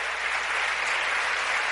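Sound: audience applauding loudly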